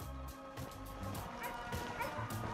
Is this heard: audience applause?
no